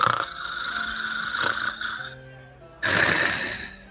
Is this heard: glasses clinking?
no